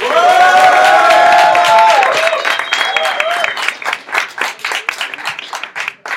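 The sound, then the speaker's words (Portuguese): An audience, asked to make noise for their favourite, cheers loudly with high whoops and shouts, then the voices fade into sustained, dense applause with rapid overlapping claps that gradually thins out. “Não, ah, foi igual, fizeram barulho igual pros é... dois.”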